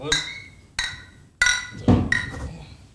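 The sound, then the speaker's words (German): Glasses clink together several times in a toast, bright ringing chimes with short decaying tones, spaced irregularly over a few seconds, with a brief low murmur of voices in the background. “Ja, Prost, Burschen. Dann ja, zum Prost. Prost.”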